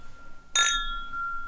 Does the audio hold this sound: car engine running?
no